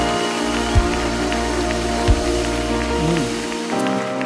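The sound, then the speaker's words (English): A large standing audience applauds and cheers with steady, dense clapping that fills the whole stretch at a loud, even level, with a couple of brief low thumps and a faint hum underneath. “And so listen, wherever you're at, at whatever location, you stand to your feet right now. And I mean, come on, make some noise because these guys are amazing.”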